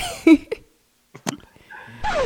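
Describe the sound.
A person imitates an imaginary dog with a few short, sharp yips separated by pauses, ending in a longer whining, whimpering sound, fairly loud.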